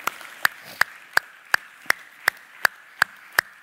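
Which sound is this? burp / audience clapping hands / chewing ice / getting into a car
audience clapping hands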